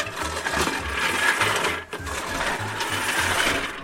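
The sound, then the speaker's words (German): A manual reel lawn mower with no motor whirs and clatters steadily as it cuts, with a rhythmic low chattering of the blades, a brief pause midway, then rolling on again. No one speaks. “Angefangen hat das mit dem Rasenmähen aber ungefähr so.”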